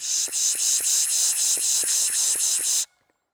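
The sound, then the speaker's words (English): A birder makes a rapid, rhythmic series of hissing "pish" sounds to call songbirds in, about ten quick breathy bursts in a row, fairly loud, then stops abruptly into silence. “To help everyone get a better glimpse of the birds, he attempts to call them in by pishing.”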